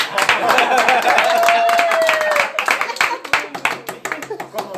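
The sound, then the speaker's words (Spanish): A crowd claps steadily and loudly, with a long whistle rising over the applause midway before the clapping thins into scattered, uneven claps. “Ya sé pues que le aplauden ustedes.”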